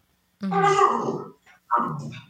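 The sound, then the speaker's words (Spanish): A dog named Shadow growls twice, a longer rumbling growl followed after a short pause by a second, slightly shorter one, loud and clear with no talking over it. “Tenemos en estos momentos a Shadow haciendo su entrada dentro del podcast, el perrito”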